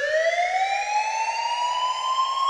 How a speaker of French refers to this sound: Mais aussitôt, votre petit diable panique et il fait sonner l'alarme.